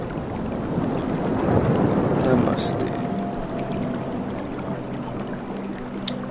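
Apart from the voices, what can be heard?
waterfall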